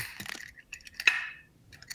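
Dry muesli pours into a glass jar, a steady rattle of small pieces with bright clinks against the glass that swell near the middle and then trail off.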